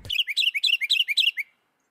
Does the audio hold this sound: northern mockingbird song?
yes